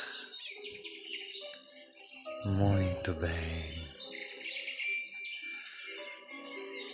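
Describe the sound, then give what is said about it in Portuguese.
Birds chirp and sing steadily throughout, with bright overlapping calls. A calm voice briefly speaks over the birdsong partway through. “Enquanto seu cérebro pode imaginar os pássaros cantando e bailando no ar.”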